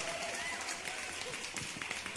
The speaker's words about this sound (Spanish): Ese aplauso más fuerte. más fuerte ese aplauso, público presente. gloria a Dios por ello. Apláudale al Señor.